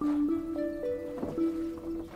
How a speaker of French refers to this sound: Et on avance. On avance sur sa pirogue vers le milieu du lagon. On navigue quelques minutes.